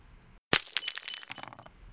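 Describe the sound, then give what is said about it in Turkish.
Glass shatters in one loud, sudden crash after a brief silence, followed by a scattered tinkle of falling shards that fades over about a second. “Acil durumlarda camı kırınız,”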